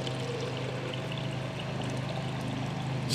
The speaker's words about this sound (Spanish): Sorry, estoy tomando agua porque hace un calor tremendo.